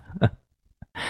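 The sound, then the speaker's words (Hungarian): A single sharp, explosive sneeze bursts out, then a short quiet pause, a small click, and a steady breathy hiss. No one speaks. “Hát egészségére.”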